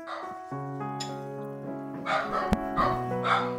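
dog barking and whimpering

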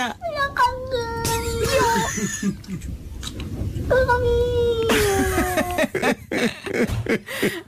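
cat meowing

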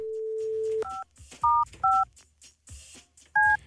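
telephone dialing tones

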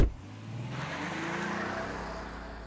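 car driving away

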